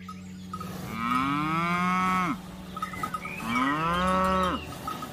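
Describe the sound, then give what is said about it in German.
Two long, drawn-out moos from dairy cows calling for their calves, one after another with a short pause between, each rising and then dropping off abruptly. Loud, with faint farm background and no talking. “die Mütter, die Kühe, die rufen dann nach ihren Kindern und die Kälber, die rufen häufig auch”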